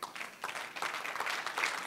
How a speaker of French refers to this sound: Moi, moi, j'aime, j'aime cette église-là qui applaudit. Attends même pas le dénouement. C'est comme, juste là, comme bravo, gloire à Dieu.